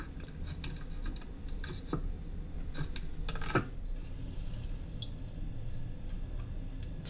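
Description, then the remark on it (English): Wet handling of a raw octopus, stabbed with a chopstick and dipped in soy sauce: scattered soft squelches, taps and drippy clicks at an irregular pace, fairly quiet over a low steady background hum, with no one talking. “playing with the fucking octopus.”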